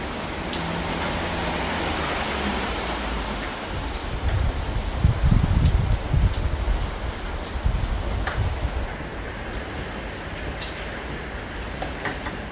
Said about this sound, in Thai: ก็ตอนนี้นะคะได้หลบอยู่ในที่ปลอดภัยก็คือห้องน้ำนั่นเอง ไม่ได้มาหลบจริงๆหรอกนะคะ อาจจะได้ยินเสียงพายุอยู่อีกนิดหน่อย แล้วก็ก้องๆนิดนึง